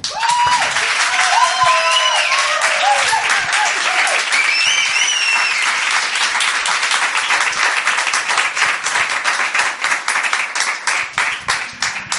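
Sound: audience applause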